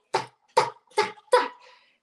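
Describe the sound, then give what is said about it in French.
A voice mimics a woman walking in high heels (pumps) on a wooden floor: four sharp, evenly spaced tocks in a steady walking rhythm, fairly loud. “il y a une madame qui marche avec des escarpins sur un plancher en bois, puis que ça fait”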